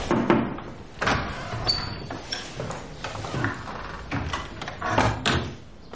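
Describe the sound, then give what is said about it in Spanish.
An office door in a university faculty opens and shuts, with a handful of solid clunks and rattles spread over a few seconds and a short high squeak of the hinge or latch partway through. “Luego, Hannah, muy seria, entra en un despacho de la facultad.”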